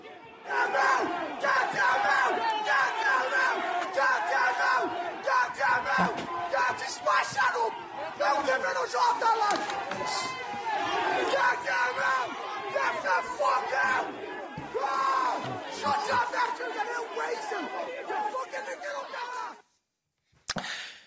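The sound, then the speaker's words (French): A large anti-immigration protest crowd in the streets of Dublin, Ireland, chants and shouts slogans such as "Get them out" in loud, rhythmic unison, voices overlapping continuously for about twenty seconds before cutting off abruptly near the end. “On a pu également entendre des slogans anti-immigration tels que Get them out, ce qui signifie sortez-les, regardez.”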